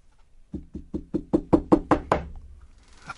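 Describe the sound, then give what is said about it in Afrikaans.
A rapid series of about nine knocks on a wooden front door, evenly spaced and growing steadily louder, followed by a brief quiet rustle. “Obomi klop.”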